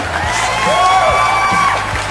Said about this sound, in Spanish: chicos, un aplauso.